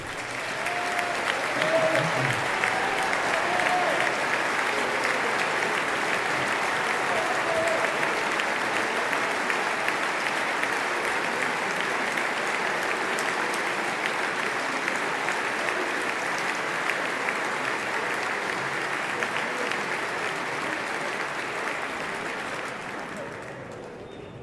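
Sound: audience applause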